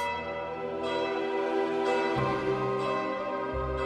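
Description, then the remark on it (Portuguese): Church bells peal steadily, with fresh strikes about once a second layering over a rich, sustained ringing. The sound is loud and full, with no voices present. “Mas como não confio na memória dos homens, conto com a memória dos sinos.”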